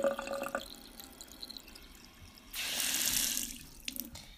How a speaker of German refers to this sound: Und ja, äh, den lege ich jetzt ins Waschbecken, schalte warmes Wasser ein und lasse das Wasser drauflaufen.